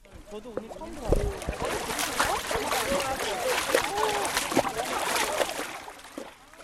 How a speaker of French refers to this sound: glisse ses pieds dans l'eau glacée et le froid se répand immédiatement dans tout son corps.